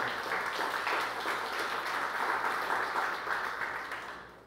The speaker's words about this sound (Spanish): Dámele un aplauso al Señor.